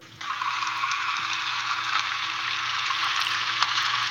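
AI-generated bubbling in a saucepan, made by a text-to-audio model from a typed prompt: a steady, dense hissing fizz that starts abruptly and stays even throughout, with faint low hum beneath and no voices; poor, low-quality MP3-like audio.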